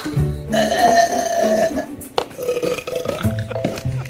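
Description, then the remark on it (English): A long, loud, drawn-out burp by a woman rumbles for a couple of seconds, followed by a few shorter croaking belches with a sharp click in between, all without talking. “Well, I've kind of always known that I was able to burp loud.”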